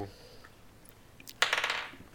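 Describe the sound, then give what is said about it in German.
Dice clatter onto a table with a sudden rattle as initiative is rolled, a quick burst of hard clicking bounces that settles within half a second, clear over quiet surroundings. “Und wir würfeln Initiative.”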